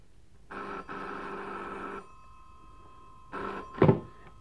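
A telephone rings: one long buzzing ring with a brief hitch, a pause, then a second ring cut short by a loud clunk. No one speaks.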